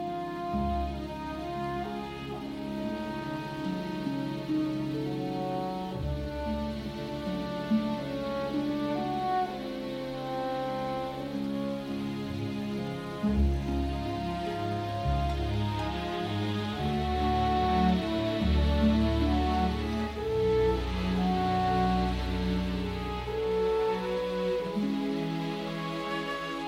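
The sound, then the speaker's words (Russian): A lush orchestral film-score love theme that accompanies romantic scenes swells with sustained strings and warm harmonies, a slow romantic melody playing steadily and fairly loud throughout, with no voices over it. “Так происходит, например, с любовной темой, озвучивающей романтические сцены Хана Соло и принцессы Лей”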